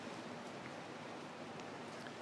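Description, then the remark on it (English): Steady, soft hiss of rain falling on newly planted sod, a continuous wash of drops with a few faint individual splashes standing out. No voices, just the even patter throughout. “Like this rain is interesting because we just planted sod yesterday.”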